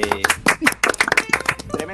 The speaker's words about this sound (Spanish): Otro aplauso, weón.